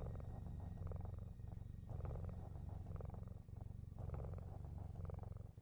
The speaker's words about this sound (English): So I think sounds of the purring just lull you to sleep. Doesn't take very long. Where you pass out.